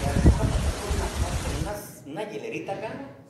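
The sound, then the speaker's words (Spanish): Loud, dense pounding of heavy rain, apparently hail, in Sonora fills the first half, a steady roar that cuts off abruptly, followed by a person talking. “Y está y parece que parece que está granizando, ¿ve?”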